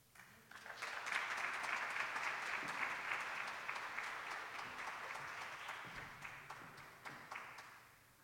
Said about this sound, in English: I just want to have us give one more round of applause for everyone who spoke and shared today.